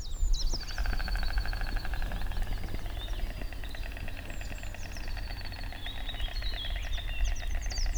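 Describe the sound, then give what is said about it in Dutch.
A stork clatters its bill in a rapid, steady wooden rattle as a greeting ritual, running for several seconds, loud, with birds chirping faintly in the background. “Dat is geklepper.”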